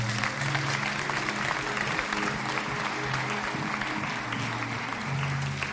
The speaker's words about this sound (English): Yeah, come on, it's worth a clap offering to the Lord.